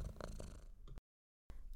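A cat purrs in a steady, low rumbling buzz that cuts to silence for about half a second, then starts again.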